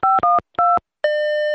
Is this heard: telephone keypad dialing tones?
yes